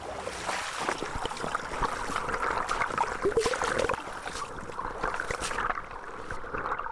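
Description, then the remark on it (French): A small polluted stream trickles and splashes steadily, with many quick bubbling clicks over a constant watery rush, moderately loud, with no voices. “On a perdu toute la biodiversité qui est sensible à la pollution, mais on voit quand même qu'il reste quand même euh, de la vie et des espèces qui continuent de vivre euh, dans ce ruisseau.”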